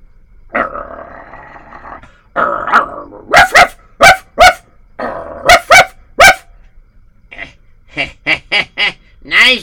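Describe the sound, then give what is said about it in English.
A dog near a gate growls low and then erupts into rapid bursts of loud, ferocious barking, repeating the growl-and-bark pattern several times before a final series of sharper, quicker barks. “Okay, so, anyways, he comes over there and his dog is getting ferocious near the gate.”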